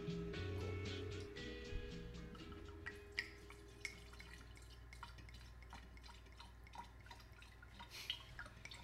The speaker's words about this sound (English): Now, what are you doing here? You're pouring it into a decanter, huh? Yeah. Um, I, I find with the vintage um, we want to decant them. The older they get, there's sediment, and we're going to see some of it here.